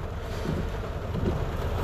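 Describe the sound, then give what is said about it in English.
Heavy rain from a rainstorm roars steadily, heard from inside a car outside a Panda Express restaurant: a dense, constant wash of noise with a deep low rumble underneath. No voices, just the unbroken downpour. “The date is I don't remember, and I'm in my car outside of Panda Express in a rainstorm.”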